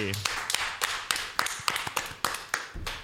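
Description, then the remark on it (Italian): Applause from a group welcoming guests Stefano Bandecchi and Tommaso Montanari on the show Muschio Selvaggio, with sharp, fairly steady claps standing out above a continuous wash of many hands clapping, moderately loud for a few seconds with no talking. “Facciamo un applauso per Stefano Bandecchi e Tommaso Montanari.”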